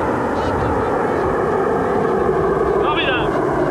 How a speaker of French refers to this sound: L'incroyable supersonique Concorde 001 prend son envol pour la première fois.